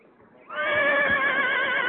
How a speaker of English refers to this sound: Do love the horse